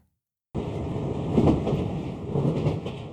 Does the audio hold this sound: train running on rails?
yes